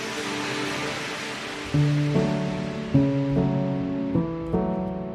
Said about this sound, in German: langer Gang, felsige Wände und das Tropfen von Wasser. Warme, feuchte Luft und schummriges Licht. Und am Ende dieser Gänge ein kleiner, sprudelnder Wasserlauf.